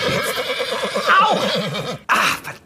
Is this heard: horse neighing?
yes